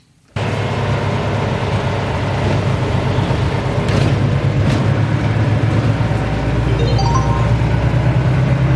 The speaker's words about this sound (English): the number one tram in Riga gets some festive cheer, decked out in blue lights for two months over Christmas. It makes people happy when they see it and brightens up those dark, grey winter days.